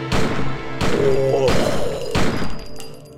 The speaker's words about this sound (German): Plötzlich fallen Schüsse.